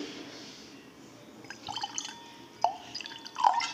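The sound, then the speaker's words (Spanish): White Riesling wine from Alsace being poured into a glass as a refill, a quiet trickle with a few louder glugs and drips toward the end, and a faint pitched ring from the glass as it fills. “Espérate, yo me sirvo un refil.”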